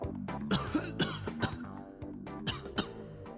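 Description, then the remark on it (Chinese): A run of weak, raspy coughs comes in short, irregular bursts, about five or six of them, over a steady low tonal drone. No one speaks. “又似乎过得很慢，直至老者把玩的黑色物体快盘出包浆的时候，只听到了一阵虚弱的咳嗽声响起。”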